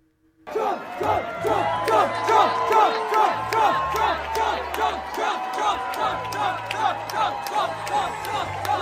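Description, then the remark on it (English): A large crowd at a Donald Trump rally in South Carolina cheers wildly while waiting for him to come on stage, a dense, continuous roar of shouts, whoops and yells that starts abruptly and stays loud throughout, with a low intermittent hum beneath it. “I mean, that's literally before he even comes on stage, people are going absolutely bananas, bananas,”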